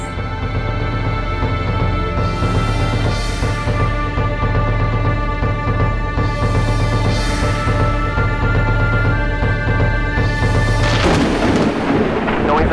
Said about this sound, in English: And I saw when the Lamb opened one of the seals, and I heard, as it were, the noise of thunder, saying, Come and see.